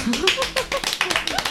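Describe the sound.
A short burst of applause: quick, fairly even claps from a few people, steady and moderately loud throughout, with a faint voice mixed in beneath.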